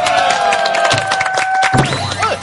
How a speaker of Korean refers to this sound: 아, 박수 한번 쳐주시죠.